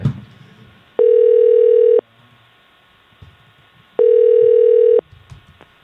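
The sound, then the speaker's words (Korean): A phone ringback tone sounds twice, each steady one-second tone separated by about two seconds of quiet, loud and clear with faint background noise between rings and no one answering. “고객이 전화를 받지 않아 삐 소리 이후”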